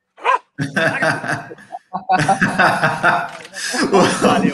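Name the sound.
dog barking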